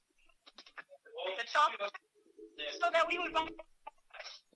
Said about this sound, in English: Hey, you're cutting out. Hey, you're cutting out. Yeah, you're cutting out. We got a niner niner. niner niner, we got cut out.